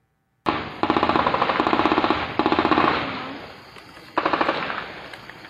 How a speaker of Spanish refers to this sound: Rafaguean domicilio en la colonia Silva del Valle de Mexicali. Fue durante la madrugada de este jueves cuando hombres desconocidos a bordo de tres vehículos abrieron fuego con armas de grueso calibre contra un domicilio